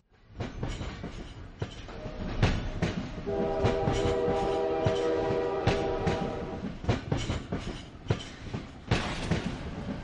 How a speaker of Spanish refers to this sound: hay un tema que pasa un tren y, el sonido del tren sí, sí, mm. sí, y el sonido del tren se funde al final con el tema